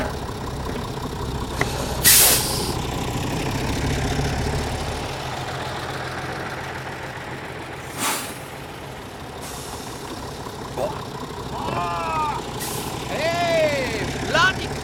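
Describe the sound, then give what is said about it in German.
A large bus idles at a bus stop in a small town with a steady low engine rumble, punctuated by several sharp hissing bursts of air brakes, while faint voices murmur in the background. “Musst mich nicht gerade aus dem Bus stoßen!”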